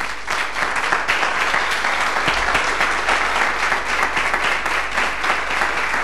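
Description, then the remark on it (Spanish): Sustained applause from a crowd, many hands clapping in a dense, steady wash of sound that holds at an even, fairly loud level for several seconds, with no voices standing out. The applause is given to the word of God at the end of a sermon message. “Dele un aplauso a la palabra de Dios.”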